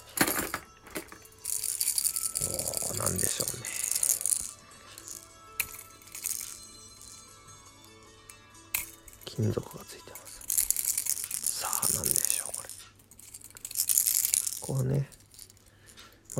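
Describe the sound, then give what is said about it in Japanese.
Small metal fishing lures rattle and clink in bursts as they are shaken by hand and handled, with brief crinkling handling noise between, and a voice speaking faintly at times. “実際に泳がせるとまた違うんでしょうけどね金属音がしますね”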